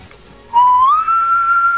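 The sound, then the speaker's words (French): A person whistles toward a tiny keychain gadget shaped like a woman's face: a single sustained whistle, rising slightly in pitch and then held steady, loud, starting after a brief quiet moment with no talking. “Un minuscule objet en forme de visage féminin dont les lèvres bien rouges sussurent « I love you dès que l'on siffle dans sa direction.”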